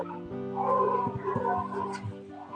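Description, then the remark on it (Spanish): Dogs bark and yip in a quick series of overlapping bursts, some drawn out into whiny yelps, moderately loud with no voices. “Por ahí Yo los perritos.”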